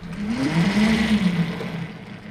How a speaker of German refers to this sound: Ja, das ist äh, nicht lautlos, aber natürlich doch deutlich, deutlich leiser, was zum Beispiel diese windgebremsten Geräte machen. Ähm, das heißt, man hört das Summen der, der Schwungscheibe, das ist gar keine Frage